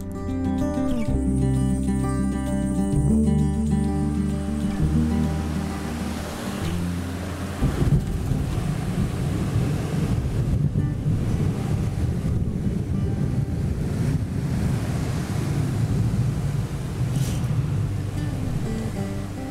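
A deep, rolling rumble of thunder swells and churns for several seconds during a storm with lightning, recorded on a mobile phone held toward the window, preceded by a steady low hum, with no voices.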